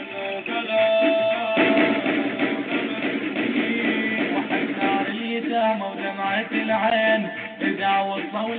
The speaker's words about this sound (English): What you're hearing now is a propaganda song being broadcast on Al Anwar 2. The station is showing pictures of soldiers fighting in Syria. It's part of the station's campaign to encourage men to go and fight.